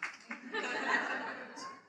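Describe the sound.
One sharp hand clap rings out, followed by a sustained wash of breathy chuckling and murmuring voices that fades out toward the end.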